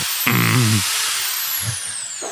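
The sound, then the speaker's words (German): An electric drill in a living room whirs steadily for a couple of seconds, its high, rushing motor noise holding constant, with a brief rising whine near the start. “Warum liegt eine Bohrmaschine bei dir im Wohnzimmer?”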